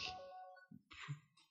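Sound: mobile phone ringing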